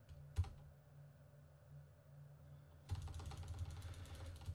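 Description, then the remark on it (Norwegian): Rapid computer keyboard typing with a dense stream of clicky keystrokes, starting after a quiet stretch with a single sharp tap, then continuing steadily, as someone searches on Google. “Det er ikke noe gøy å sitte og høre på at jeg googler heller, tror jeg.”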